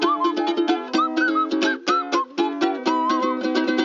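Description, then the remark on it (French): A tune played on a nose flute: reedy, whistle-like tones wavering and sliding in pitch, in quick rhythmic bursts over a steady low hum, with no talking. “une des musiciennes les plus productives du tube en matière de musique nasale.”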